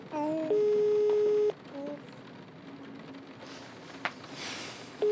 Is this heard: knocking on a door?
no